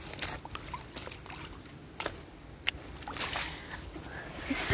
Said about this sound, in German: Wir machen das erstmal künstlich für euch. Und ja, es ist noch ein bisschen weiteres Wassergeplätscher.